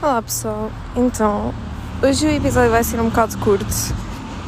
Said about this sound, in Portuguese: e eu estou na rua, por isso desculpem o barulho dos carros e barulhos de rua